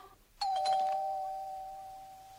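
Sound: doorbell ringing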